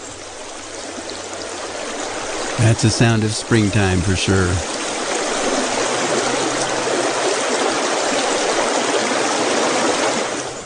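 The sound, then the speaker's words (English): A small stream bubbles and flows steadily throughout, a constant wash of water. A person speaks briefly over it near the start, then the babbling water continues alone. “And then there's a bubbling brook, little stream going.”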